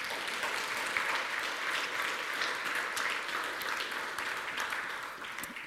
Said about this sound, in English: I think the applause is appropriate.